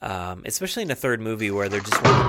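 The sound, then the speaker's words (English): A phone knocked off by a cat clatters as it drops, one short, sharp knock arriving right at the end after someone has been talking steadily, fairly loud. “she actually knocked my phone off and caused the same chain of events”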